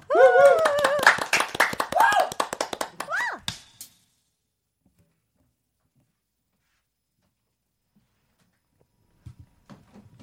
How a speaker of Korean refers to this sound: 준비되셨으면 한번 박수로 청해 들어 보도록 하겠습니다.